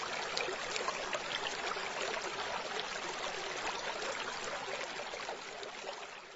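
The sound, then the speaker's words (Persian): A steady rush of free-flowing stream water, continuous and fairly loud throughout, with a bright babbling texture and no voices. “این صدای آرامش بخش جریان آب آزادی رو که دارید میشنوید نوید میده که برنامه ما در چه موردی هستش”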